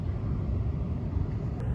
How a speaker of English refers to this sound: Woo! A plane! Right next to the sea!